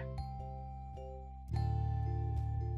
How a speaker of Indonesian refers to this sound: Handphone Erika pun bunyi dan terlihat dari notif itu dari dia